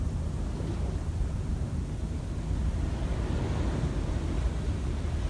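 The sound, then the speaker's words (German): Steady, deep roar of ocean surf, a continuous wash of rumbling waves with no clear breaks, heard alone without any voices. “Alle Gedanken gleiten, so wie auch das Meer und die Wellen ihren natürlichen Lauf haben.”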